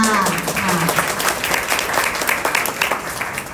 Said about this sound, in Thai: การขอเสียงปรบมือดังๆให้กับเกียรติทัสองท่านอีกครั้งหนึ่งค่ะ